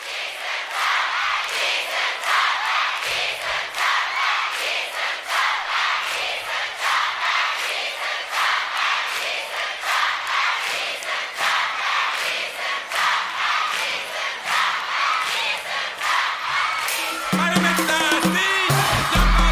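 A live concert crowd on a 1997 live album cheers and claps in a steady, upbeat rhythm throughout, loud and continuous, and the band's music comes in over the noise near the end.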